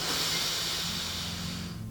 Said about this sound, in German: Du nimmst jetzt mit mir drei tiefe Atemzüge. Wenn du kannst, schließt du sogar die Augen dabei. Wir atmen tief durch die Nase ein